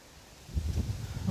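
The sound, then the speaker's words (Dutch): Strong wind buffets the microphone outdoors, a low, rumbling roar that swells in after a quiet moment and keeps gusting unevenly. No voices are heard. “Maar het waait best wel hard.”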